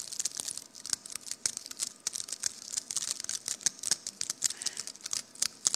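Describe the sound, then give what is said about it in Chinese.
Foley of a raw egg being peeled: a steady run of fine, brittle crackles and small snaps as shell and membrane come away without any sound of the liquid inside, bright and papery, with no voices. “那你再听这个生鸡蛋的声音。”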